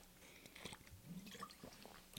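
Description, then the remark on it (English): Wet mouth sounds as a fresh nicotine pouch goes into the mouth: a few soft squishes, smacks and lip clicks over about two seconds, with no talking. “Um, put in a fresh little nicotine pouch, man.”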